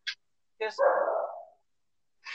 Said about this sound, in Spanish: Perdón si están oyendo gruñidos, pero son mis perros que creo que están agarrando a putazos.